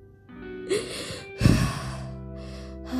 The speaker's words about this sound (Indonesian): sambil tarik nafas